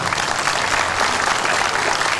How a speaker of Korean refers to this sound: 네, 박수 한번 더 치십시오.